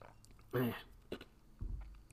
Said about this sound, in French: Je vais prendre une gorgée de café.